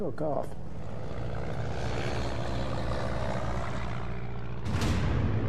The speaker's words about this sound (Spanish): Pero si el almirante japonés estaba a ciegas, los aviadores estadounidenses tenían clara su misión, atacar. Los pilotos aprovecharon ese momento para despegar y acelerar sus motores.